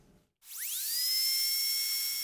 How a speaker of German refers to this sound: Wenn sie den Zahnarztbohrer hören, dann sträuben sich bei vielen die Nackenhaare. Selbst wenn es nur darum geht, leidigen Zahnstein loszuwerden.